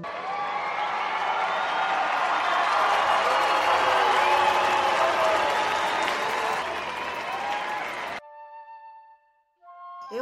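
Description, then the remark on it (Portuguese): A crowd applauds participants from Ceará on the stage of Ressaca, loudly and steadily for about eight seconds, with a few cheers and whoops mixed into the dense clapping, before it cuts off to near silence and a brief tonal sound. “Então vamos aplaudir aí o Ceará, que chega e chega com força aqui no palco do Ressaca.”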